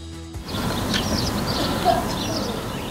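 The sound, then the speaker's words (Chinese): Several faint, high bird chirps repeat at intervals over a steady outdoor hiss, with no voices present, in the Alpine village of Hallstatt, Austria. “听着虫鸣鸟叫，眺望白雪皑皑的阿尔卑斯山脉，宛若仙境的地点是奥地利村庄哈尔施塔特。”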